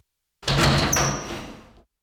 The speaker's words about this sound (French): La porte de ta cellule s'ouvre.